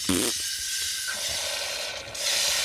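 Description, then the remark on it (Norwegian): Champagne fizzes loudly as it is carbonated, a steady rush of hissing bubbles with a faint whistling tone running through it and a brief dip near the end, as some of it gushes out. “Her hører vi den velkjente champagnelyden. Det skal jo være mye bobler i champagne. Her fosser det litt ut,”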